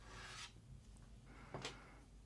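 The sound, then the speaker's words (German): Two short raspy scrapes against a door as a dog scratches at it with its claws, fairly quiet over a low background hum, with no voices. “es kratzt dann ein Kratzen an der Tür.”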